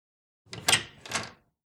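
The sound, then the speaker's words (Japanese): A door opens in two quick scraping, rattling bursts, the first sharper and the second a sliding swish, then silence. “関がドアを開くと息を切らして髪を振り乱した松永が目の前にあった。”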